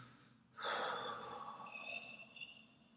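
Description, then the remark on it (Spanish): A single long, deep abdominal breath, given as a demonstration, starting suddenly and continuing steadily and fairly loud for a couple of seconds, with no talking. “es una respiración abdominal y profunda.”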